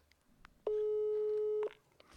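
A telephone ringback tone on a call: one steady, loud, one-second beep at a single low-mid pitch, with quiet background noise before and after.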